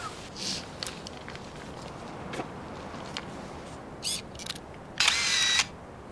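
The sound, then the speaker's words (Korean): A series of camera shutter clicks at irregular intervals, ending in a rapid burst of shots, over a faint, hissy background; a camera photographing a mother in a scene from the film Moonlit Winter (윤희에게), during a trip to Otaru, Japan. “찍지 마.”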